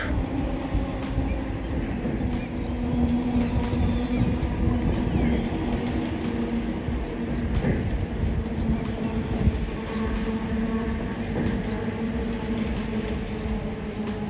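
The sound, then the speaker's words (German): A very long train rumbles past, a steady, loud roar of rolling wheels with faint clanks and a humming whine that never fades during the whole stretch. “Da kommt noch ein Zug.”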